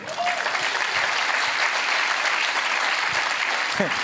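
Steady, dense applause from an audience fills the whole clip, a loud continuous wash of clapping that holds even in volume without fading.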